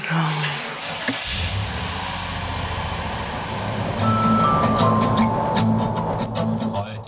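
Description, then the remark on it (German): Steady low rumble and road noise of a car being driven to the train station at 7:30 in the morning, continuous for several seconds, with a faint high tonal melody drifting in near the end. “Christine greift sich Handy, Kopfhörer und Kaffee und steigt ins Auto, um zum Bahnhof zu fahren”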